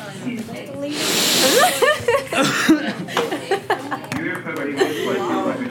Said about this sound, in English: do you guys sniff so hard? like, I don't even make a noise.